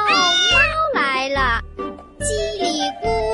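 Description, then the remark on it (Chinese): A cat meows as it comes, in a children's rhyme about a little mouse stealing oil: about four or five meows in quick succession, each a high, tonal cry with a sliding pitch, loud and clear with short gaps between them. “喵喵喵，猫来了！”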